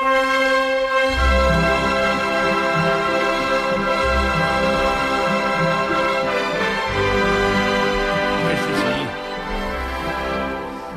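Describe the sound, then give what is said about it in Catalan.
A full orchestra plays a loud, sustained passage of an opera overture, rich held chords over strong repeated bass accents, continuous with no voices. “escoltem l'obertura de Nabucco”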